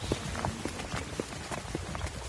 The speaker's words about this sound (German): Wir hören Schritte von drei Männern